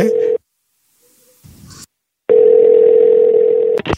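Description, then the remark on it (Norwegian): A telephone ringback tone rings while a call goes through: a loud, steady electronic hum sounds briefly, falls silent, then returns in one longer burst before cutting off abruptly. “Ringer”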